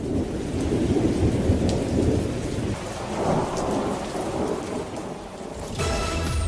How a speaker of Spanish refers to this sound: Eh, estaban haciendo algo, digamos, durante una tormenta y pues, sucedió otra cosa que nadie tenía planificado